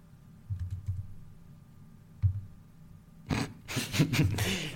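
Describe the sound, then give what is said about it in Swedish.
Keys clatter on a computer keyboard as someone runs a quick Google search: a few scattered taps at first, then a quick, dense burst of typing. Nobody speaks. “Spice from vi, för er som lyssnar då, dra en snabb googling så att jag inte är helt ute och cyklar.”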